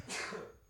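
A single short, breathy sneeze or cough bursts out and fades within half a second, fairly soft, with no talking around it.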